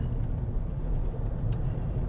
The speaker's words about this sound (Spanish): el coche que me han dejado es un Opel Moca, Moca X concretamente, ¿vale? Es un coche, bueno, pues el Opel Moca es un crossover así,